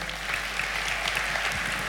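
An audience applauds the women who look after the home, a steady wash of many hands clapping at an even, sustained level with no voices rising above it.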